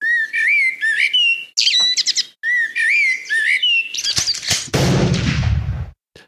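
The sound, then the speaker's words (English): A bird tweeting sound effect: bright, warbling chirps in quick repeated phrases, clear, ending in a loud, harsh burst of noise before cutting off. “This is your word for tweet.”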